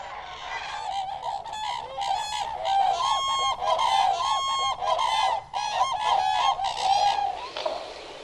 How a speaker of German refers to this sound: Hunderte Graukraniche haben die von Menschen ungestörten Feuchtgebiete entdeckt und führen hier jedes Jahr ihre Hochzeitstänze auf.